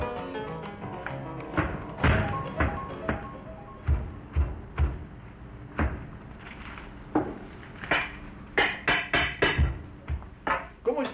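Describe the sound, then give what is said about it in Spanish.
Wooden thumps and knocks from a rickety chair that is falling to pieces being wrestled with, irregular bangs and clatters, sparse at first then coming in a quick cluster of sharp hits near the end. “ya lo ves, luchando con esta silla que se cae a pedazos.”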